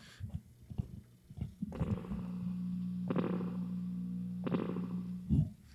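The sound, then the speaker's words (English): Spring reverb on a vinyl record being played: a sustained low, buzzy tone that swells twice into washy, metallic splashes with a wobbly, echoing tail, fairly loud and with no talking. “You can hear that spring yeah. reverb.”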